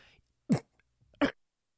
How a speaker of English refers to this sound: that cough snuck up on me.